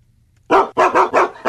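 A dog barks five times in quick succession, loud, each bark sharp and evenly spaced after a brief moment of quiet, with no voices present.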